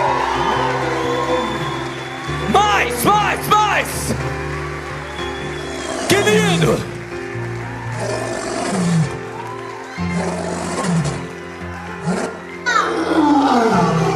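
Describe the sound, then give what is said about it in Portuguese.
A large audience roars and shouts together in loud, sustained waves over a steady musical backing at an evening event, with a single voice calling out above them at intervals, urging them to roar like a lion. “Quero ouvir o seu rugido aqui nessa noite.”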